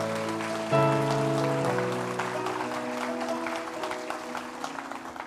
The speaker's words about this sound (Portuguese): Templo das Águias, aplauda esse Deus maravilhoso.